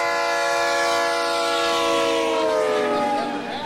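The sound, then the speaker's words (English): A loud, sustained train horn sound effect, played as a livestream hype-train alert, blares steadily for several seconds with no one talking, its chord-like tone sagging slightly in pitch as it fades at the end. “We got a hype train going.”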